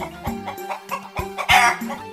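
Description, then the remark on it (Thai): A chicken clucks in a few short, irregular bursts, with one louder, throatier call near the end. No one speaks. The chicken has been beaten bloody by another chicken in a fight and is being shown to an uncle inside his house. “ลุงดูนี่สิจ๊ะ ดูหน้าของไก่”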